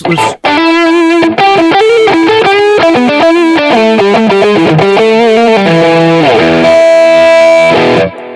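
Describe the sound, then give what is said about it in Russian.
A loud, distorted electric guitar, played live on air by a studio guest, plays a fast melodic solo line with sustained bends, ending on a held, effect-laden note before cutting off. “А, Максим пишет, скажите гостю, чтобы гитару подключил, но я слышал эти гитарные ноты, я слышал это соло, гитара звучит, а, друзья.”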